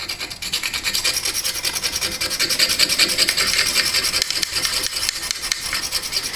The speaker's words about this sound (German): Schildergeschichten. Abkratzen. Abkratzen. Abkratzen.